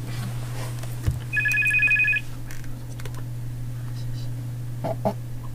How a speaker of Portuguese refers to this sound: temos o telefone de toque. Força, se quiser o telefone, força.